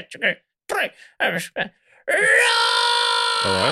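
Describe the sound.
A voice imitates a metal scream like that of a band's singer: a few short vocal grunts, then one long, loud, harsh sustained scream that drops abruptly into a lower growl at the end.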